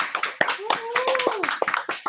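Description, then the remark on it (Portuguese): A crowd applauds historians, archivists, librarians and heritage preservers of Alagoas, Northeast Brazil, with dense, irregular clapping that carries on steadily and fairly loud, while a rising-and-falling vocal whoop or cheer rings out over it midway. “Palmas para vocês, estamos com vocês.”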